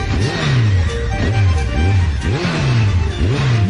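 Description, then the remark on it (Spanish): The engine of Toto's motorcycle revs up and down in repeated surges, about five or six throttle blips in a row, loud, with a steady rumbling idle between them and no voices. “moto del Toto.”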